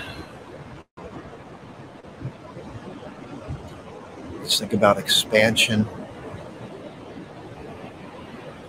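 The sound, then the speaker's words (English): Steady ocean surf washes continuously in the background, a soft, even roar of waves, with a person speaking briefly over it partway through. “Take a moment and pause and breathe with me Listen to the ocean.”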